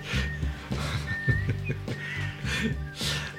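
Someone whistles a short, wavering melody over a backing track with a steady, thumping beat; the whistled notes are thin and high, rising and falling against the low instrumental sound.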